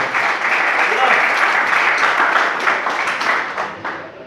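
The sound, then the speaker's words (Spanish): A crowd applauds steadily and loudly for about four seconds as applause for the Lord, a dense wash of many hands clapping that thins slightly at the end. “Denle la aplauso al Señor, por favor.”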